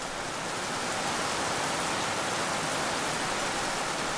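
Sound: heavy rain falling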